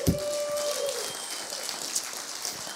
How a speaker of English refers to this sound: Aren't you grateful for really cool leaders, great influencers, and great pastors? Can we give them a big old clap?